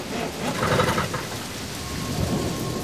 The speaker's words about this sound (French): Le ciel est noir. La pluie continue de tomber.